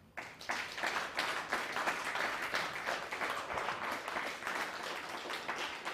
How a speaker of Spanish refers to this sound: un fuerte aplauso al Eterno.